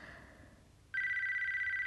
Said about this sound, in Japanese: 鳴り続ける着信音はまるで踏切の音。